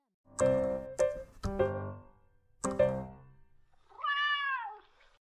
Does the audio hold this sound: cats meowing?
yes